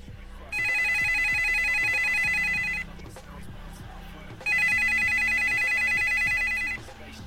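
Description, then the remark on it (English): A telephone rings for an incoming call: two long, loud, trilling bursts of high electronic ringing, each about two seconds, separated by a short pause, over a low steady background. “Hold on a second. I got another call.”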